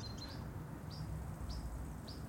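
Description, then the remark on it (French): A European pied flycatcher gives four short, sharp calls at a steady, unhurried pace, fairly faint, over a constant low rumble of moving water or wind. “Ça, c'est le, le gobe-mouche noir. C'est un oiseau qui est presque invisible, qu'on ne connaît pas, euh, mais qui est très très commun en Europe du Nord et de l'Est.”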